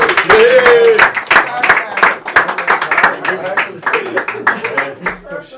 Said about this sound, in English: Right, so that's it for the boys, and uh, right, give them a round of applause, lads. Thanks, lads. Nice, lads.